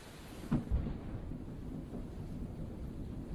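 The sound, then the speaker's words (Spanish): A sharp crack of thunder early on, then a deep low rumble settling into steady, dense storm noise, like increasingly intense heavy rain and wind washing over everything with no voices. “Mientras la lluvia cada vez más intensa le moja la cabeza calva y el cuello arrugado, Jairo piensa en la ironía de aplaudir a la tormenta.”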